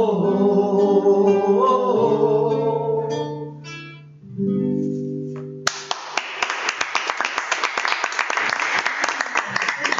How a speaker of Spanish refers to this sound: Fuerte, fuerte, fuerte esos aplausos.